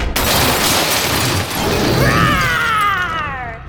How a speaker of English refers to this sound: It is I, Princess Donosaurus. I cannot seem to get a handle on not destroying your door.